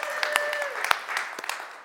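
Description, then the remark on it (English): A church audience claps together in praise to God for a donated grill that has arrived, a dense patter of many hands for about two seconds at a steady, moderate level, with a thin whistle-like tone in the first moments. “Let's give God a little hand clap of praise for that.”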